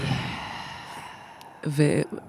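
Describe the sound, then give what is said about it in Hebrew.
A long, airy breath is drawn in and let out, followed by a brief voiced sigh-like sound near the end. “אני מזמינה גם אתכם, מאזינים, לשים לב לגוף שלכם ולקחת איזה נשימה טובה בתוך האנרגיה המבעבעת הזאת.”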